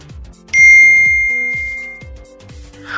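A single bright chime of a phone message notification rings out and decays slowly over a couple of seconds, with faint low rhythmic thumps of background music underneath.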